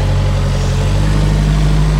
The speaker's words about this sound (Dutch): Ik moet even aan de kant, Dan komt hier een autootje voorbij. Nou ja, autootje. is een soort uh, eh, shovel iets. ding met, eh